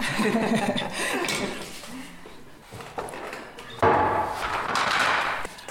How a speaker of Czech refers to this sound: A můžeme to ukázat prostřednictvím těch zvuků, které bude tkalcovský stav vyluzovat.